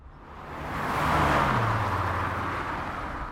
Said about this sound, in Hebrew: מכונית חלפה מולי הרגע בכיוון הנגדי, אבל זו לא הייתה סתם מכונית, כי במושב הנהג ישב הטרמפיסט, נקי ושמח מתמיד.